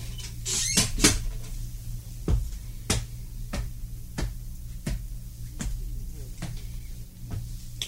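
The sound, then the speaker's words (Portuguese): A door is handled and shut by someone entering, with a few sharp knocks near the start, followed by a steady run of evenly spaced taps over a low, constant hum. “entre, Marisa, entre e feche a porta”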